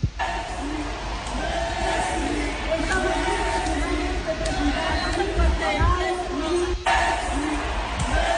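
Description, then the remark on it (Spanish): A large crowd in a stand chants "Messi, Messi" in unison, many voices rising and falling together in a steady, rhythmic chorus with a dense murmur of cheering underneath, loud and sustained throughout. “Eh, y hay muchísimos videos y la gente empezó a gritarle, obviamente a hacerle coro, Messi, Messi, para que volviera.”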